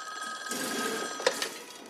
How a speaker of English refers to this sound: And the other way I love it is as soon as he hangs up, you immediately hear the phone ring again because now you are clearly in some kind of auto repair facility, and there's yes.